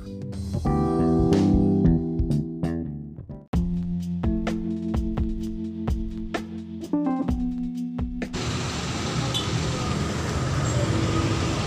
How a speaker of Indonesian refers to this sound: Macet, ramai di jalan. Inilah kehidupan yang terjadi sehari-hari.